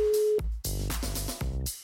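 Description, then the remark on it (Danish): A short, steady telephone ringback tone sounds briefly as a call is placed to a radio co-host's phone, which is in the USA, then cuts off and gives way to louder, fuller tonal sounds that continue to the end. “Og øh, jeg vil lige ringe til hende for at fortælle hende, hvordan og hvorledes mandagen bliver, eftersom hun først optager, opdager den om 8 timer.”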